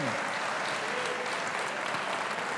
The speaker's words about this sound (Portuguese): Pode aplaudir, porque você tem que aplaudir mesmo.